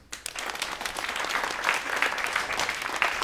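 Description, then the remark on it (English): A crowd applauds steadily, dense overlapping claps forming a continuous wash of noise that swells quickly and holds at a fairly loud level throughout. “Everybody, please put your hands together”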